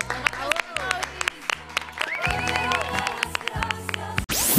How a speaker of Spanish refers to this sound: Aplausos.